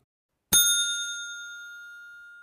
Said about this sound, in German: Da hielt der Waschbär inne. Warte mal, war das nicht ein Klingelding? Ja, egal.